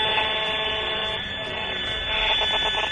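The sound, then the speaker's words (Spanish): A continuous harsh electronic buzz from a radiation meter measuring electromagnetic waves from antennas on a building rooftop in a park, reading 540 microwatts per square metre, dense with high-pitched harmonic tones, steady and loud for the whole stretch with a slight pulsing flutter toward the end. “Nos hacemos una idea de la intensidad de la onda, que es bastante mayor que en otras partes del parque.”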